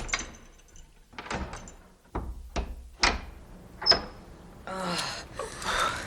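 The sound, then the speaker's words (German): A series of sharp metallic clicks and clunks as a pastor turns a key in the lock of a church door, with a brief high squeak, followed by a longer creaking, rushing sound as the heavy door swings open. “Wartet. Ich schließe auf.”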